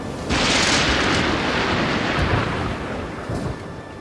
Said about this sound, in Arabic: كان على سعيد الاستعداد لمواجهه عاصفه قويه ستضرب في عرض البحر وسط امواج عاتيه انقلب القارب يعني سبعة ثمانية متر طالعين